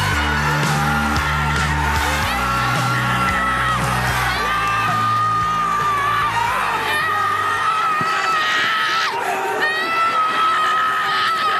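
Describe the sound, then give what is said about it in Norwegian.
A family of self-described football fanatics from Stavanger erupts in loud cheering and screaming as their team scores in the year's most important match, overlapping whoops and yells rising and falling, with excited shouting voices continuing throughout over some background music. “De er noen selvtitulerte fotballidioter som nettopp har sett sitt lag skåre i årets viktigste kamp.”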